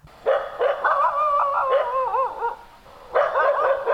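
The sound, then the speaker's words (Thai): A dog barks agitated, territorial warnings at a passing stranger: loud sharp bursts broken by a drawn-out, wavering whine, then another cluster of barks near the end. No one speaks. “ถ้าเราได้ยินเสียงหมาแบบนี้เห่าใส่เราก็เฉยๆเดินของเราไปเรื่อยๆ นะคะ แล้วก็ระวังตัวนิดนึง เพราะว่าหมาบางตัวก็อาจจะดุก้าวร้าว”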